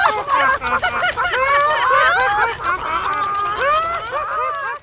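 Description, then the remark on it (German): A flock of chickens clucks and squawks loudly and continuously, many birds calling over each other, with bursts of wing flapping mixed into the commotion. “Blöde Flatterhühner. Nur weil ihr nicht fliegen könnt.”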